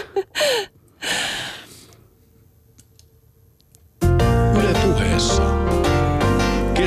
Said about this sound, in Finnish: Noin pienen tuumaustavan jälkeen lähti tunnarikin soimaan.